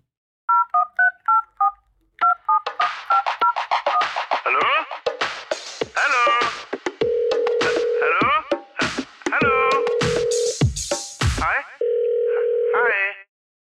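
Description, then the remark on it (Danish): A short produced jingle for a new segment, built from telephone sounds: a quick run of touch-tone dialing beeps, then busy chopped sound bursts punctuated by three steady dial-tone holds, loud. “Og det er simpelthen vores nye jingle til vores nye, vores, vores nye segment,”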